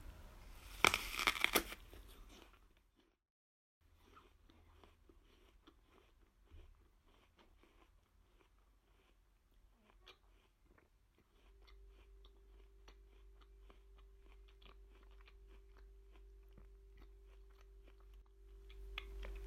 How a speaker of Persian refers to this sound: خب سیب گاز بزنم نمیدونم صداش بیاد ولی گشنمه